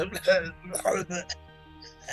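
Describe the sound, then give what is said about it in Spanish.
A voice mimics coughing up blood after a blow, making a few short, raspy, throaty bursts in an uneven rhythm, with brief pauses between them. “Tosiendo sangre de un golpe, digo, ahí estuvo bueno, ya tuvo una matopeya... auditiva.”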